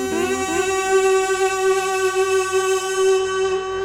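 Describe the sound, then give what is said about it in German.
A buzzy kazoo plays a new jingle alone, loud, sliding briefly at the start and then holding one steady, nasal note for several seconds. “Das ist ein Kazoo.”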